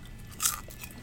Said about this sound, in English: crunch, crunch, crunch.